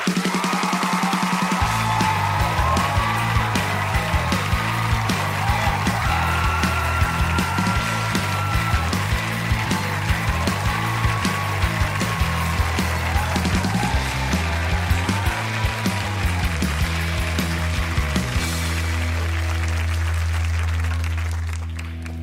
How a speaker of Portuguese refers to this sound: Aplausos para o herói brasileiro Rubens Barrichello!